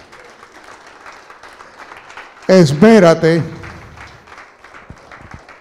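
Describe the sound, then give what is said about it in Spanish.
A church audience applauds for the Holy Spirit steadily throughout, a dense crackling wash of clapping, while a loud voice briefly calls out over it midway. “Alguien puede darle un aplauso al Espíritu Santo.”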